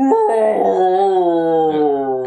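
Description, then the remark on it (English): The monster Jamila's wailing roar, like a baby crying at a low pitch, rises and wavers in one long, loud cry that lasts a couple of seconds, with no talking. “It's depressing to think that Jamila's roar is apparently a very low pitch sound of a baby crying.”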